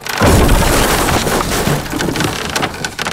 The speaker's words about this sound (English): Oh, the giant doors fell over. That's why.